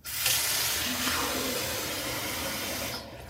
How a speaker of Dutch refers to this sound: Vier keer per dag voor twee maanden drink ik alleen maar deze shakes als maaltijd. Iedere dag opnieuw, poeder in een beker, water erbij.